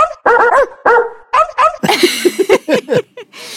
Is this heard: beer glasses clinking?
no